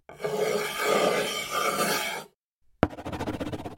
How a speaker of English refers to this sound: and now she's writing on wood.